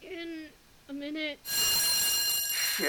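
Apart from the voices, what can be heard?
fire alarm ringing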